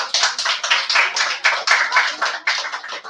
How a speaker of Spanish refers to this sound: Un fuerte aplauso a todo el equipo de América, que ya lo saben